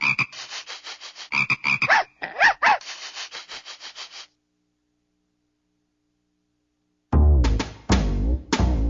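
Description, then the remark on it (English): A little frog croaks in a rapid, rattling series of raspy calls, then falls silent for a few seconds before a louder, lower burst of croaking resumes. “Puppy sees a little frog.”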